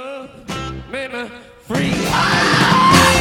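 A raw, shouted rock vocal wails out in short bursts, then a loud, driving full band crashes in with dense guitars and pounding drums, giving a fast, rockabilly-flavoured rock song.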